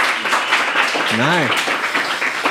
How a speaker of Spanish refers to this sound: Excelente, un fuerte aplauso para los dos.